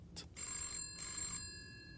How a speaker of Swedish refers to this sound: När det åter ringer hemma hos Nisse. Den här gången är det polisen.